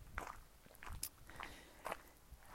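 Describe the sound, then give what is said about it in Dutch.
Footsteps crunching underfoot on a dry outdoor surface as a person goes for a walk, a steady walking rhythm of several fairly quiet steps with faint crackling between them and no talking. “Ik ben in ieder geval aan de wandel. Het knispert een beetje onder mijn eh, voeten.”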